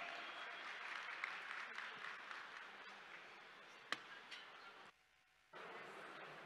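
Sustained applause from an audience fills the room, a dense wash of many hands clapping at steady volume, briefly dipping near the end before resuming.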